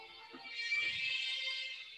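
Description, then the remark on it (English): A phone rings with a bright, sustained electronic ringtone that holds steady and fairly loud for a couple of seconds, with no one talking over it. “Calling me, dog.”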